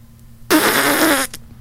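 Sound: imitated fart noise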